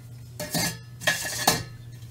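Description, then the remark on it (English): A metal camping pot clinks and scrapes against a Solo Stove in three short bursts of bright, ringing metallic clatter, with a steady low hum underneath and no talking. “What I'll do a lot with this with the solo stove is I'll use actually the pot I'll put back here.”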